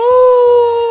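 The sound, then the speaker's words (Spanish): A person imitates a wolf howl with one loud, sustained tone that holds a nearly flat pitch for about a second, sounding almost siren-like. “¿Cómo serían los aullidos, …? A ver.”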